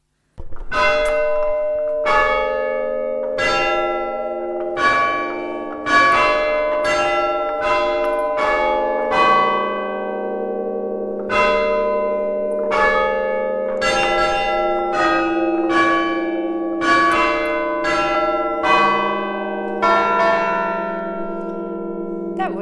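Church bells ring out a melody, a steady succession of bright, resonant strikes whose long ringing tones overlap and sustain between notes, loud and close with no voices.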